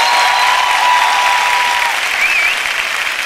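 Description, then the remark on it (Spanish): Audience applause fills the whole moment, a dense, steady wash of many hands clapping at once, loud and continuous with no voices over it. “Vamos, si alguien va a aplaudir, tiene que hacerlo con más ganas.”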